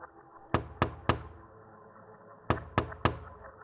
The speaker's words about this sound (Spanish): Cuando pasaba por el edificio, donde horas antes había visto aquella imagen tétrica, escuché unos pequeños golpecitos en el cristal de la ventana. En ese momento no me llamó la atención, no le di importancia.